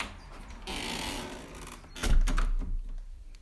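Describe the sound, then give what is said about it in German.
A window slides shut with a drawn-out scraping rush of about a second, then lands with a heavy, low thunk, followed by a brief rattle as it settles. “Mein Fenster ist gerade offen, perfekt. Ich gehe da gerade mal hin. Mach das zu”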